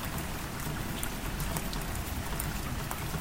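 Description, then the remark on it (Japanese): Steady rain falls continuously on a winter night, a dense hiss of drops with scattered brighter patters, moderately loud, with no voices present. “雨降ってきたから窓を閉めてくれない”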